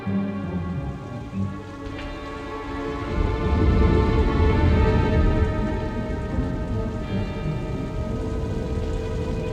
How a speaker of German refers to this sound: Es regnet.